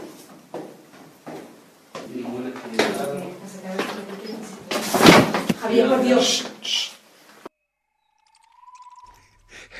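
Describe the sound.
A heavy crash like a person falling hard, a single loud thud amid excited voices, preceded by a few sharp knocks and followed by silence and a brief high tone.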